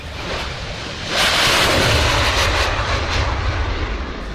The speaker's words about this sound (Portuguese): Bom, hoje a gente vai falar de um caça da natureza. Olha o som do caça aí.